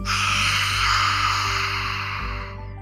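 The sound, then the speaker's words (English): One long, forceful 'ha' breath pushed out through an open mouth with the tongue stuck out, a yoga lion's breath after an inhale through the nose; a loud airy rush that holds steady for a couple of seconds before fading, with a low steady hum underneath. “Some people call this lion's breath. And you'll breathe in through your nose. You'll take that ha sound, but you're going to stick your tongue out.”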